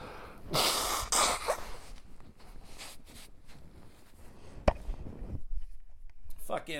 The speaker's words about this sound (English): Uh, I gotta blow my nose here, but I apologize.